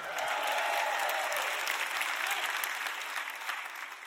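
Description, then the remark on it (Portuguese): A church audience cheers and claps loudly, making noise for middle C as a good note, a dense, sustained burst of applause with scattered shouts that stays strong throughout and fades slightly toward the end. “Quem acha que é uma boa nota, faça algum barulho para o Dó Central.”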